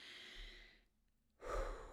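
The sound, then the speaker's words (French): Heavy, winded breathing of a woman nearly out of breath after talking at length: a long airy exhale, a brief pause, then a sharp, louder breath drawn in, with no talking. “puis là, tu vois, là, je, t'ai tout dit ça, puis je suis limite essoufflée.”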